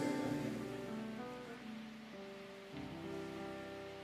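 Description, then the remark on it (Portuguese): Steady rain falling in a continuous, even hiss, heard alongside sustained low musical tones that shift chords partway through. No one speaks. “Chuva.”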